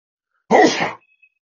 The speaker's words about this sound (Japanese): くしゃみ。うん。ちょっとあばらがね、今折れそうになる。命がけのくしゃみだね。